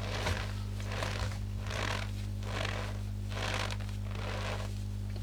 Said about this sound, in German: Und dazu kommt dann in der zweiten Ebene noch ein, was ist das, Speisestärke so ein Schneeknarzen, um die mhm. Tiefe zu erzählen.